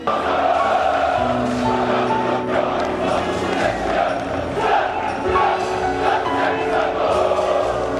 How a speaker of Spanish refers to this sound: El Maracaná despidió con una ovación Rey.